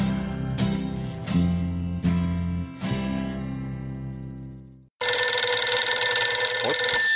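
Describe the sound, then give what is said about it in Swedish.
A ringing telephone at Studio 64 cuts in abruptly and loudly as music with repeated struck notes fades out, its shrill bright ring continuing steadily to the end with no voices. “hopp, hopp, hopp, det ringer här.”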